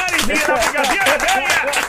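A short applause sound effect: steady, loud crowd clapping mixed with cheering and whooping voices, sustained without a break for about two seconds.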